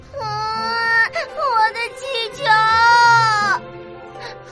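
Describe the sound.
A little fox cries sadly: a young, high-pitched voice cries loudly in drawn-out, wavering wails, about three long sobs broken by short catching breaths, with a softer whimper at the end.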